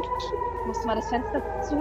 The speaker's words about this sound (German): Oh, es gibt gerade Raketenalarm